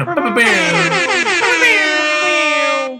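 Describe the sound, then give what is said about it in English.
A loud, blaring air horn sound effect: a few quick stuttering blasts run straight into one long sustained honk lasting about three seconds before cutting off abruptly. “let's oh. give that an air horn. Air horn.”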